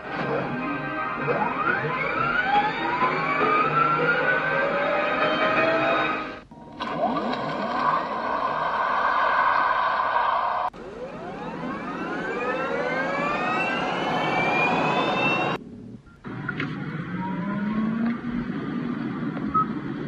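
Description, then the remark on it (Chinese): Electric car low-speed pedestrian warning sounds of the kind the US government requires electric cars to make at low speed: steady synthetic humming tones with gliding, rising and falling pitch, played as several separate samples with short breaks between them and no talking. “节目的下半段继续来讲电动车的声音，先给大家来听一段哈，我说的美国政府要求电动车在低速行驶时候的这种所谓的提醒的声音究竟是什么样的。”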